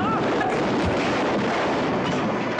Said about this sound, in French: Ça, c'est une explosion